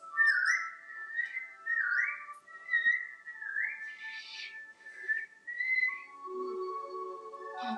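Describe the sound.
A person whistles a clear, lilting tune of rising and falling notes with smooth swoops between pitches, moderately loud, with no one speaking; it ends on a lower, softer tone. The whistle is to call a cloud.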